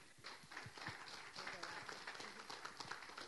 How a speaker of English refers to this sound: so that he can share, and let's give him an applause and welcome.